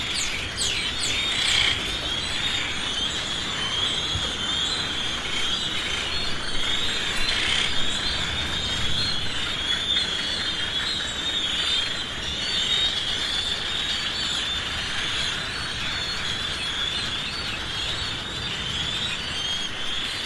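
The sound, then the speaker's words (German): A dense, unbroken din of many birds calling at once on Bird Island, shrill chirps and rasping cries layered over a steady wash of noise, loud and constant for the whole stretch with no talking. “Und da hören wir jetzt mal rein, damit ihr mal ein Gefühl dafür bekommt, was da Tag und Nacht eigentlich los ist auf Bird Island.”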